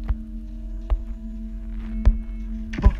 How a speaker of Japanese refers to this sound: あああ鍵盤の音してるこの部屋あった鍵盤の音だあー怖いな近づきたくないな鍵盤があるよ鍵盤鳴ってるよ